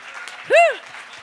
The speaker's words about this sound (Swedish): Och när du ändå står och klappar så ska vi ge en varm applåd till … från Helsinki, Helsingfors.